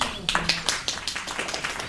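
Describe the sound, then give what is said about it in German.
A small group of tourists claps spontaneously as a basket weaver finishes telling his story, a brisk, uneven patter of overlapping hand claps, fairly steady throughout, with faint background murmur underneath. “Die Touristen klatschen spontan Beifall, als der Korbflechter mit seiner Geschichte fertig ist.”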